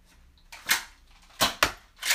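Several sharp snapping pops from a toy pistol fire in quick, uneven succession, with quieter mechanical clicks between them as it is reloaded, and no voices.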